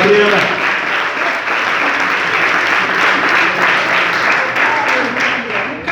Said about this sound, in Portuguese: Você pode aplaudir o Senhor pela vida da pastora